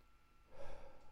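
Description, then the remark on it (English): A single soft, breathy deep inhale-exhale, a short airy rush of breath in through the nose and out through the mouth, with no talking around it. “Let's take some deep breaths.”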